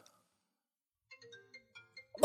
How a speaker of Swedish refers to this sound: Oj! Lånetelefonen ringer! Nu ringer Storbritannien.